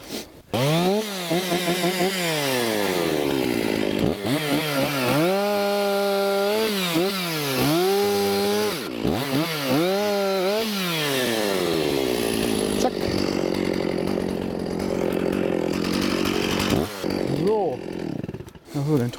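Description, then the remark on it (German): A chainsaw roars continuously, its engine pitch rising and dipping repeatedly as it revs and bites into the trunk of a tree whose crown lies in a stream, with a steadier grinding stretch later on before it winds down. “Okay, da vorne sägst du ihn auch ab? Da säge ihn ab, ja.”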